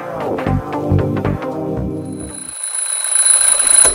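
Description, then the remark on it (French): A loud electronic alarm clock rings in a rapid repeating pattern of bright tones as someone wakes up, then gives way to a steady high whine and hiss. No voices are present. “Claude se réveille et part sa machine à café.”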